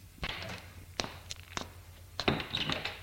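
A front door opens with a couple of dull thunks and a latch click, followed by a few uneven footsteps and a final bump as someone walks out.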